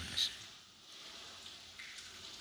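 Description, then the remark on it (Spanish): Heavy rain, growing heavier and driven sideways, falls outside a fourth-floor window as a steady, soft wash of hiss, with one brief sharper tap near the start. “Sí, cada vez llueve más.”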